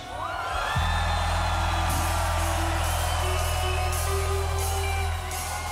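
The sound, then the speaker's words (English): A large crowd of young people screams and whoops together at a singer's performance in a sustained, loud roar of high-pitched cheering, with a deep steady hum underneath throughout. “I want all the young people scream at me.”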